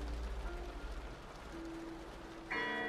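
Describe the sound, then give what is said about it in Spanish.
Church bells ring at a funeral while the priest gives the last prayer, in heavy rain, over a low, steady outdoor rumble, with humming tones lingering before a fresh, bright bell strike near the end. No one speaks. “Suenan las campanas mientras el sacerdote está dando el último rezo, despidiendo y dando el último adiós a quien fuera Alexei O'Connor.”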